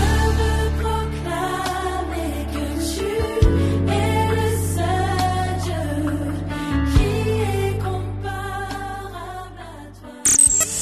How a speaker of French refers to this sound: la … nous donne rendez-vous pour découvrir son tout nouveau single de louange